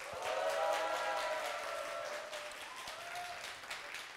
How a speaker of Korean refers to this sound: 아 박수 소리가 적어요. 다시 한번 제가 인사를 하면 어, 김총수한테 보냈던 박수의 3배 정도를 부탁드리겠습니다.